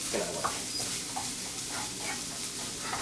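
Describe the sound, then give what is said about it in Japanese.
Fried rice sizzles steadily in a hot pan while being stir-fried, a dense crackling hiss with intermittent scraping and tossing sounds from stirring, moderately loud, with no talking. “いい音しますよね。この音いいっすよね。チャーン作るときって。”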